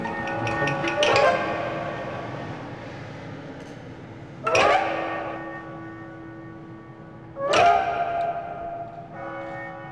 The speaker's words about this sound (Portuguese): O sino é uma coisa muito poética, mas ao mesmo tempo também tem este, este lado, por vezes, quase perverso, não é?